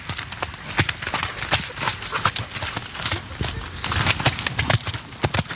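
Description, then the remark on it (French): Horse hooves clip-clop steadily as a 10-year-old mare is ridden, a brisk, even rhythm of sharp thuds, with no voices over them. “Très basiquement, c'est disons essayer de rendre le cheval facile quand on va dessus, sentir que le cheval est droit et qu'il freine, il avance, il tourne et qui reste comme ça le plus en équilibre possible.”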